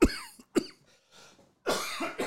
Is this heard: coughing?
yes